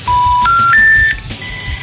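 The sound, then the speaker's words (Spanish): Three rising telephone tones sound in quick succession after dialing the number of the passport office in Santiago, each a short steady beep stepping higher in pitch, heard over a speakerphone, followed by a quieter stretch of line noise. “Tú marcaste el número.”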